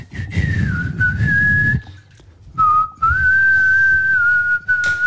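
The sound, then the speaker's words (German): Someone whistles a slow, sustained song melody, the notes gliding and wavering slightly, with breathy low rumble underneath and a brief pause midway before the tune continues. “Ja, man hört auch, dass ich daheim auch nicht gut kann pfeifen kann, nicht nur hier.”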